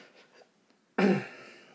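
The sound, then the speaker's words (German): After a moment of near silence, someone clears their throat once, abruptly loud, with a harsh rasp that fades off over a fraction of a second. “Ich muss immer übelst räuspern gerade.”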